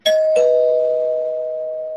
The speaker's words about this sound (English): I'm only going to mildly spoil this. Ring the bell anyway.